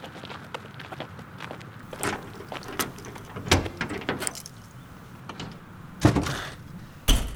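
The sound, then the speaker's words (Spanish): A car trunk is handled, with mechanical clicks and shuffling, then two solid thumps near the end as the lid is shut. Nobody speaks. “Abre la cajuela.”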